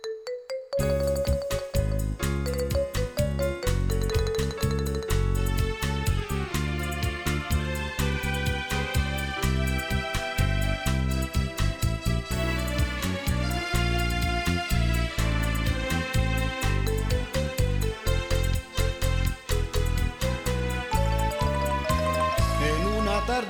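An instrumental song played on electronic keyboards, with bright sustained synth tones over a steady rhythmic beat, loud and continuous throughout with no voices.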